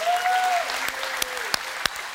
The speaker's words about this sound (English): Jimmy, thank you. Can we give a round of applause to Jimmy?